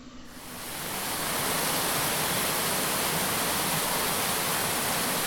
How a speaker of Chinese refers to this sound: 经过了一个小溪。是毛埔坑溪。